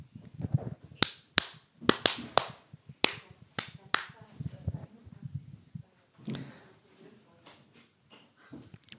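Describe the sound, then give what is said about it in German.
A series of about eight sharp, crisp hand claps in an uneven rhythm, followed by quieter murmuring voices and faint rustling once the clapping stops. “Warte mal kurz, ich klatsch mal.”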